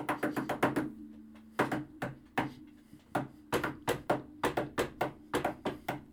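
Sharp knocks on a wooden door in a lively, syncopated rhythm, quick bursts of several raps separated by short pauses, fairly loud with no talking. A young man is knocking on the door of a house.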